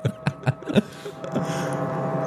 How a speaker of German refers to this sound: Ja, und dann habe ich hier unter mir jemanden, der bohrt. Der Bohropper. Genau, so ein Opa, der einfach wahllos den ganzen Tag in die Wände bohrt.